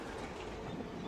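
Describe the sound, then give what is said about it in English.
A train rolls past a station as it starts to slow, a loud, steady rumble with a faint rhythmic clatter of wheels on the tracks. No one speaks. “he stays as still as possible, and when the train passes him, it's hard for him to tell if that's the sound of a train speeding up or of one that's going to stop.”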